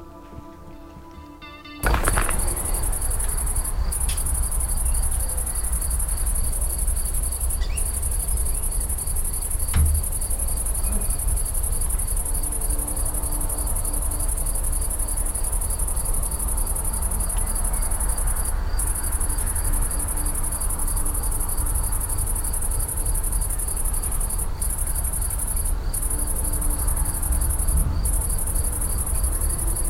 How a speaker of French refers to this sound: moi, je vois un champ avec grillons et cigales et canicule, plein soleil. Euh, milieu de l'été, on est en août.